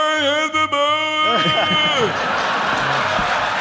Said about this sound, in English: Listen to that crowd, man. So good.